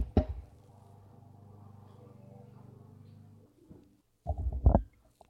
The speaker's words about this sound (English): Oh my goodness. Sounds like someone's mowing the lawn. Yeah, they do that occasionally over here. neighbors.